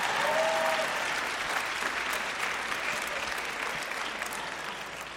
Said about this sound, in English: And so, Nicodemus, if we're going to clap, we're all going to clap, all right?